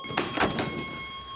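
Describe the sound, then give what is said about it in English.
A locked security door is tried several times, with three quick rattling clunks in the first half second, then a steady electrical hum continues alone. “It won't open because it's a security door.”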